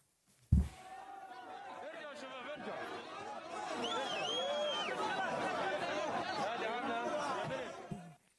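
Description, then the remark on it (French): A large hostile crowd chatters loudly around a hostage being released by Hamas and handed over to the Red Cross. Many overlapping voices merge into a dense, continuous babble with occasional shouts rising above it, starting abruptly after a brief thump and cutting off near the end. “C'était une image furtive. Hein, euh. Avec une foule hostile autour.”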